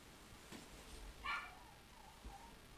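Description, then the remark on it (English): A dog gives one short, sharp bark midway through, with a couple of fainter yips around it, against a quiet background, barking at another dog being walked past. “that's why she's barking like that”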